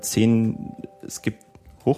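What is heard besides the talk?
mobile phone notification tone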